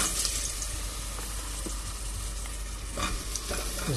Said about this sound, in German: Da kommen dann die Champignons rein und werden da drin richtig schön, wenn das Öl raucht, angebraten.